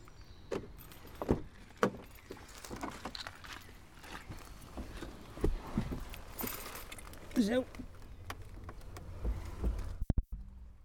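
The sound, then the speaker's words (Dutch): Keys jangle and a car parked under trees by a small bridge is unlocked on a dry, sunny spring day with a breeze: a series of sharp clicks and clacks spread over several seconds, with soft outdoor ambience and a brief voice in the background. “Nou, we moet eens even van het slot afhalen.”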